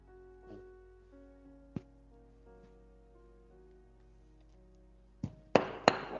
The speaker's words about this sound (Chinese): 谁家放鞭炮呢？咋的？这么喜庆吗？